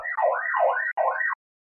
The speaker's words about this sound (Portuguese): A, a, ambulância passou aqui dentro de casa agora.